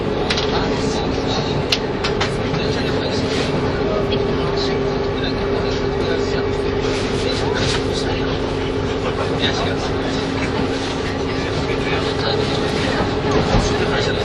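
A KiHa 85 series diesel train on the Hida No. 1 service between Hida-Kanayama and Hida-Furukawa runs steadily, its engine drone and low humming tones holding a constant loud roar with rattling wheel and track noise throughout, heard as if from inside.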